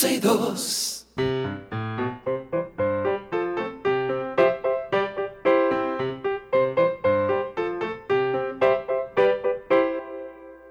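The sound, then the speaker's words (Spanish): A short, bouncy children's jingle plays alone, the song that invites children to call in: a bright melody of quick, plucky notes at a steady, cheerful rhythm for about ten seconds, opening with a brief burst of noise. “Ahí suena la cancioncita siempre que le dice a nuestros niños que estamos esperando sus llamadas”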